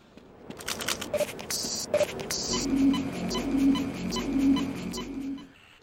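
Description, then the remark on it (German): A video game health and energy charging station: a few sharp clicks and bursts of hiss, then a steady, noisy charging drone with a soft tone pulsing three times before it cuts off. “Das Zischen der Heil- und Energieladestation.”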